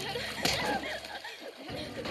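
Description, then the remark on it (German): Frantic splashing and sloshing of water in a pool as a woman held under water thrashes, fighting for her life, frees herself and gets to the pool edge. A sharp splash comes early on, with churning water throughout. “Diese ringt um ihr Leben, kann sich irgendwie befreien und an den Poolrand retten.”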